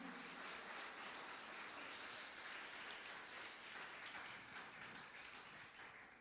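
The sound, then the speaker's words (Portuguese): An audience applauding Jesus steadily, a dense wash of many hands clapping at once, sustained and fairly loud for several seconds with no voices on top. “Você pode aplaudir a Jesus com o seu melhor?”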